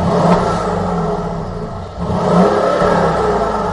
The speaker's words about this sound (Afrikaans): Onder die GL500 se enjinkap skuil 'n 4.7 liter V8 met twee turboaanjaars.